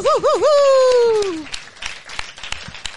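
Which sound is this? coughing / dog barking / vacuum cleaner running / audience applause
audience applause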